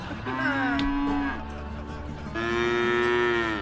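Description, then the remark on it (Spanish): Two long, low moos from a cow, one after the other with a short pause between, each a drawn-out bellow that sags slightly in pitch. Loud, with no talking. “Ahí voy, vaquita, te voy a echar de traer.”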